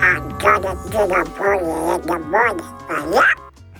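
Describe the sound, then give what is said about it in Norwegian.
A person does a Donald Duck voice, a run of raspy, squawking quacks in a steady babbling rhythm for a few seconds, fairly loud. “Og sånn høres Donald Duck ut.”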